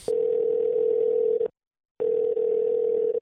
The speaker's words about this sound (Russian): Сейчас странно, что никто, никто не поднимает. Я сейчас звоню в одну очень интересную организацию.